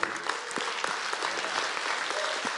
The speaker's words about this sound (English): Oh, y'all clap. Y'all like, that's a lazy clap. Come on.